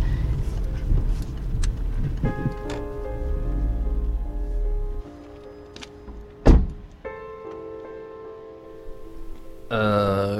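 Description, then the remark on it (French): A car engine rumbles low, then idles down as the vehicle parks behind another car; a single solid thud of a car door shutting follows, with a brief whirring near the end. “Je me garer derrière sa voiture.”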